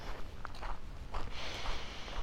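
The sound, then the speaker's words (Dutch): Footsteps crunch loudly over a gravel path at a steady walking pace, each step a gritty scrunch of loose stones, with no voices. “Want ondertussen hoor je waarschijnlijk mijn voeten heel hard knisperen. Ik loop namelijk op een soort grindpaadje.”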